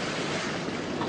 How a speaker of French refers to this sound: Vous entendez C'est le bruit de la mer.